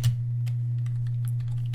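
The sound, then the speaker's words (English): Irregular, light clicks of typing on a computer keyboard over a steady low electrical hum, with no voices, as a person types a Google search for most WWE tag team championships. “I'm typing most WWE”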